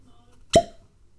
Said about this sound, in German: Und, jetzt, und jetzt lauschen wir dem verzückenden Geräusch des Korkens.